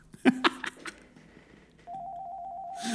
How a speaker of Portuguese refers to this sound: Ai, esse som de escritório. Estão-me a ligar do trabalho.